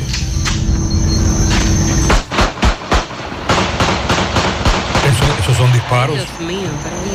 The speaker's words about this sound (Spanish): Esos son disparos. Esa es la parte alta de Salcedo anoche. Oh, estaba así de caliente.